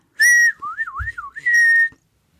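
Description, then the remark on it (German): Someone whistles a short, clear phrase: a steady held note, a quick wavering run of rising and falling pitches, then another sustained note, with no talking. “Ich flöte einfach so vor mich hin, weil das will ich gar nicht hören.”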